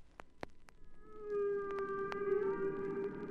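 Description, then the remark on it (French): Humpback whale song: a few sharp clicks give way to a long, sustained tonal moan that holds a steady mid pitch with rich overtones and swells to moderate loudness. No voices. “Les sons étranges et féeriques qu'ils émettent sont perceptibles de très loin et ne semble provenir de nulle part.”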